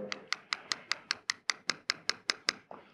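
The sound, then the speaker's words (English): A glass crystal is tapped rapidly about a dozen times in a steady, even rhythm, each crisp tick carrying a brief bright ringing tone, with no talking. “Because after all, when I take even this uh, crystal here, which is glass, and go,”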